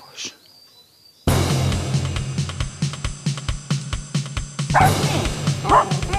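A pack of 17 dachshunds in Pernaja barks in a loud, overlapping chorus after a brief quiet moment, with rapid yips and sharp barks tumbling over one another.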